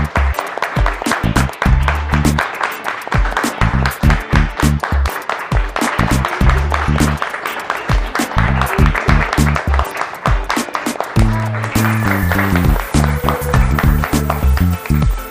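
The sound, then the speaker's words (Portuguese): Steady audience applause, a dense wash of clapping that runs throughout, mixed with loud music carrying a stepping bass line and drum hits. “Uma salva de palmas pra gente.”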